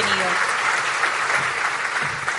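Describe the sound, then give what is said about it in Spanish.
An audience claps steadily to welcome a speaker as he begins his presentation, a dense, continuous patter of many hands at a fairly loud, even level, with faint voices mixed underneath. “Te vamos a brindar un aplauso para que comience entonces tu presentación.”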